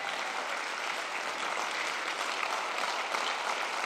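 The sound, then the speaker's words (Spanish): A large crowd claps loudly and steadily, a dense wash of applause that fills the space without a break for the full few seconds, with no voices standing out. “Si lo crees, dale un aplauso fuerte.”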